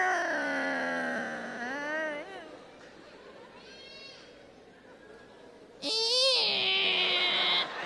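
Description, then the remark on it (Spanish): A drawn-out, wavering creak that sounds like a meowing cat, likely voiced as an imitation of a door being opened at night, at one in the morning. It comes in two loud stretches, the second higher and shriller, separated by a quieter gap. “Esa puerta en el día no hace ruido. Ah, no, en la noche como que un gato le metieron.”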